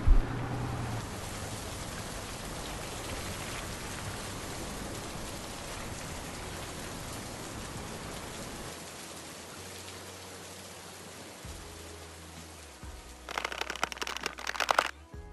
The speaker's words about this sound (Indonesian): Lantas mereka pulang berdua meninggalkan sang pemuda itu di bawah kuyuran hujan yang mendaru deras.